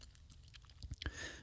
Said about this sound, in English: Now, again, just want to let you know you may hear some clicking in the background. That is just uh, me pulling up documents that I want to look up and uh, things that we're going to use today to help you understand, okay?